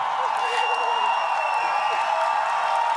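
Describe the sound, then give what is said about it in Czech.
A large crowd at a rally applauds and cheers steadily, welcoming Petr Pavel to the stage, a dense wash of clapping and raised voices that holds at a constant level throughout without pausing. “A svým potleskem přivítali, ale to je asi zbytečný.”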